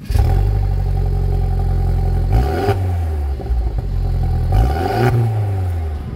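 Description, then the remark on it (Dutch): A Mercedes car engine idles loudly, then revs twice, with its pitch surging and falling back around the middle and again near the end. No one speaks. “We zitten niet in een paarse Fiat, we zitten in een uh, Mercedes.”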